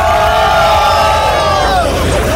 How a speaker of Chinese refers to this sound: 每一次央视直升飞机飞过去，大家都会这个欢呼雀跃一下。